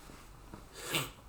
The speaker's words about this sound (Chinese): 等一下我我要先擤一下鼻涕。 好，你擤鼻涕。